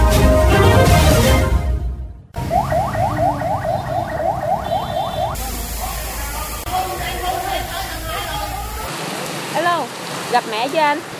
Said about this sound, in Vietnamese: đó là những âm thanh được ghi nhận từ hiện trường vụ cháy quán karaoke An Phú trong sáng ngày 7 tháng 9. Tiếng còi xe cấp cứu dồn dập, tiếng lực lượng cứu hộ gọi nhau trong lúc làm nhiệm vụ